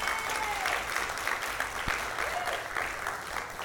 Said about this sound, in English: And once we encounter that, oh, I'll stop for claps. I will stop for claps.